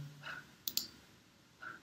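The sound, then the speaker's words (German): Two quick, close-together computer mouse clicks, crisp, with brief faint tonal chirps before and after against a quiet background, as OK is clicked to change a document's heading style. “OK klicken, dann verändert er das hier”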